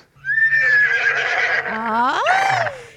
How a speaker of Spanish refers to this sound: Y le dice, doctor, doctor, vengo a visitarlo porque mi marido, mi marido se cree caballo, se cree caballo todas las mañanas, se la pasa relinchando, trota todas las mañanas.